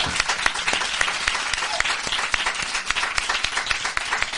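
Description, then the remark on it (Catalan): A crowd applauds steadily, a dense, even wash of many hands clapping at once that holds at a constant, fairly loud level throughout without fading. “Aquesta dona és un geni, un aplaudiment per l'avi i la Llama en general, si us plau.”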